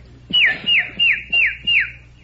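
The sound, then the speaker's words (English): A person whistles five quick, evenly spaced descending chirps in a steady rhythm, imitating a bird chirp; the whistle is clear, with no talking. “For instance, a chirp,”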